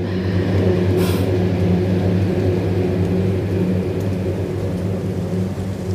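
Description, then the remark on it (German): A car drives past with a steady, loud engine rumble, a low droning hum and road noise, holding at an even level throughout, with a brief hiss near the start. “es fährt gerade ein Auto vorbei, ich hoffe, es ist nicht so laut.”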